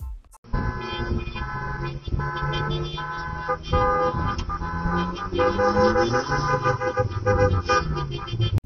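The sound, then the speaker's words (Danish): A dense chorus of several hundred car horns honks at once during a car demonstration, overlapping tones blaring continuously for the whole stretch, like a large crowd of vehicles sounding off together, with no talking. “Flere hundrede biler, dyttende,”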